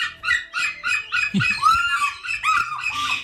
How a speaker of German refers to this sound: Diese lustigen Schreihälse im Hintergrund sind übrigens Schreiseeadler